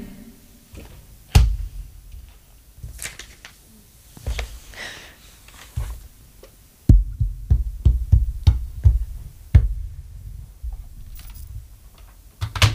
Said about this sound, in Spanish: Venga, un momentito que abro la nevera.